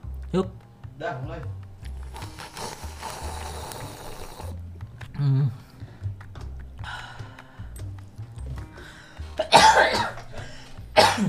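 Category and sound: human body sound, cough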